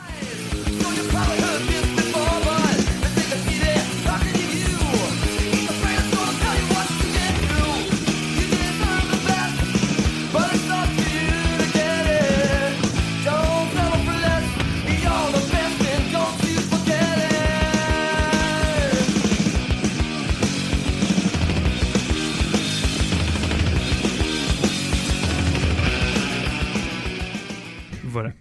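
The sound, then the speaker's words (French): A loud, dense punk rock track plays continuously for about half a minute, with driving distorted guitars, pounding drums and raw, shouted vocals filling the whole mix at a steady, high energy. “Bon, allez, c'est un, vrai extrait pour le coup, quand même, pour qu'on s'écoute un petit peu à quoi ça ressemble quand ils font un morceau un peu plus.”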